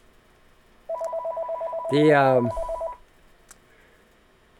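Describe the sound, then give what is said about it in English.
A telephone rings with a rapid, buzzing electronic trill lasting about two seconds, loud, while a man briefly speaks over the middle of it. “can't believe I got a phone call now.”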